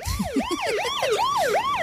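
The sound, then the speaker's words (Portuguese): A wailing siren sweeps up and down in quick repeating cycles with bright harmonics, loud, like an emergency-vehicle alert effect, with a brief laugh near the start. It is the "alerta app" alert sound on the Manhãs da Comercial radio show. “Isto é o som do ah. alerta app.”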